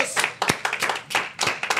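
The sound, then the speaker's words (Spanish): A small group claps briefly, a quick irregular patter of sharp hand claps that overlap a little, lasting under two seconds with no voices. “aplauso muchachos.”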